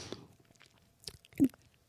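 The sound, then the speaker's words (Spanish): A voice imitates chewing food, as done before passing the food to another person, with a few wet mouth smacks and squelches, irregularly spaced over a couple of seconds, the loudest one near the end. No words are spoken. “masticaba así la comida y se la daba, pues, la comida del ser humano y se se la daba al otro que a lo mejor no podía masticar”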